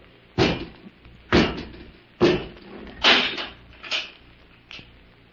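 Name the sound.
door being closed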